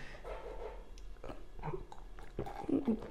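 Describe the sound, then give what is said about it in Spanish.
A quiet sip from a drink, with a few short wet mouth sounds and swallowing noises over a low background hum, no talking. “Sorbito.”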